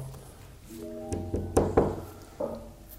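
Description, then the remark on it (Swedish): Four or five firm knocks on a door at a veterinarian's, loosely spaced in an uneven rhythm, moderately loud over a faint steady background hum. “ja, jag går bort till eh, veterinären. Och eh, knackar på.”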